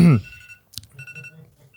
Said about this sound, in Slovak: Prečo ti zvoní budík? Prepačte, vážení posluchači, evidentne pondelok 15.57 je ten čas, kedy stávam.